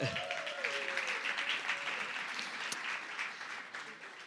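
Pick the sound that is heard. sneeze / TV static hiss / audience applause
audience applause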